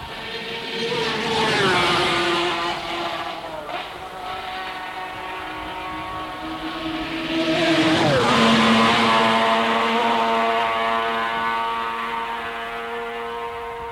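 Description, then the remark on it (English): Racing motorcycles at the Isle of Man TT scream down Bray Hill in 1975, their high-pitched engines whining loudly and continuously, with sharp pitch drops as two bikes roar past. “sound of the bikes going down Bray Hill reminds us of some of the great names in motorcycling.”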